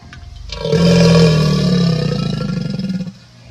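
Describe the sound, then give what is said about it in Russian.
A deep, loud crocodile roar rumbles for about two and a half seconds, rough and guttural with a throaty gurgling tremor that pulses toward the end before cutting off. No talking. “вставь сюда, пожалуйста, фрагмент рыка крокодилуса, чтобы все поняли, о чем я говорю.”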